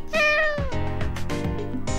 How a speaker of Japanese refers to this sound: うちの猫。